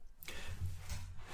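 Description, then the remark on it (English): A cat scratches and digs in litter while going to the toilet, giving two brief gritty rustling bursts over a low background rumble. The scraping is quiet, and no one speaks. “Is that That was my cat going to the toilet.”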